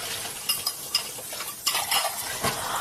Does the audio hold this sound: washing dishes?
yes